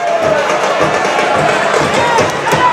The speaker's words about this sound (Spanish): Tocó en alguien y será córner favorable a la agrupación deportiva Alcorcón. Aplaude el público local.